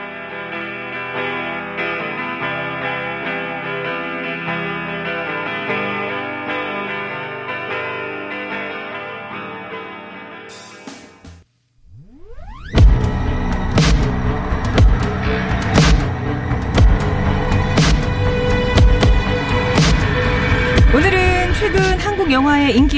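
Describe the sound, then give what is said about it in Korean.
A rock song plays on TBS FM radio: a steady, layered intro gives way after a brief drop to a loud, heavily distorted full-band section with pounding drums and a sung vocal line. “자, 정답 보내주신 동안 노래 한 곡 듣고 입으로 오겠습니다.”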